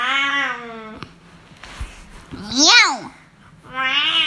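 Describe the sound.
A child's voice imitates a cat, letting out one loud, drawn-out meow that rises and falls, framed by sung, babbling vocal sounds before and after.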